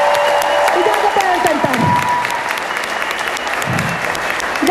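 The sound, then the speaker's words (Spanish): A crowd breaks into sustained, dense applause, many hands clapping steadily throughout, with faint cheers and voices mixed in the background. “Así que un fuerte aplauso nuevamente para ustedes.”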